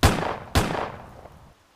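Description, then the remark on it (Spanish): Two loud revolver gunshots about half a second apart, fired as the door to an attic opened, each a sharp crack followed by a ringing, echoing tail that fades into quiet. No one speaks. “Y finalmente, la puerta se abrió. Dos disparos”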